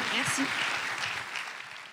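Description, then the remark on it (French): An audience applauds three female guests: steady applause fills the whole stretch, a dense, even wash of many hands clapping, with a few voices briefly mixed in near the start before it gradually thins. “bon, merci à toutes les trois, on vous applaudit, merci beaucoup.”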